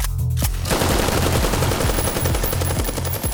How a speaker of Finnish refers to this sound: Valmiusyksikön sotilaat etenevät kolme huonetta, kunnes saapuvat pitkälle käytävälle. Käytävän päässä on minun henkilökohtaisesti asettamani konekiväärimies. Hän avaa tulen.